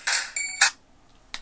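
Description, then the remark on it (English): A mobile phone ringtone plays a quick run of bright electronic notes, then falls quiet before one more short tone. It sounds clear, with no one talking over it. “Oh, hang on. That's, that's, that's my phone.”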